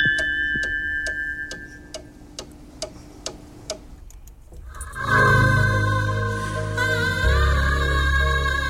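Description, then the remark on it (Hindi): A studio clock at Radio Sangam ticks steadily, roughly twice a second, for about four seconds over a faint hum during a time check at about 11:09, then full music abruptly comes in and continues to the end. “time note कर लेते हैं स्टूडियो की घड़ी की सुइयां कहती हैं ग्यारह बजकर नौ मिनट और पैंतालीस सेकंड हुआ चाहते हैं”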